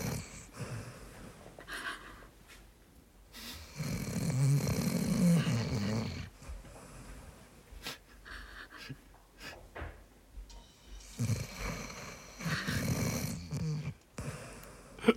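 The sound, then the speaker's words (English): A dog snores steadily on a sofa, recorded by a phone set beside her, with rhythmic rasping breaths and snorts in slow, uneven cycles, some louder and rougher than others, in otherwise quiet surroundings. “I, I, mean, I will stop it there, but I have now immortalized my dog snoring.”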